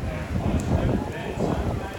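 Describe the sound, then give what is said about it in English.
Horse hooves of a passing horse-drawn carriage in an animated English Village scene clip-clop steadily at moderate volume, mixed with gusty wind noise on a breezy evening and a murmur of background voices. “Lots of little animation, carriage, horse coming by, people strolling through,”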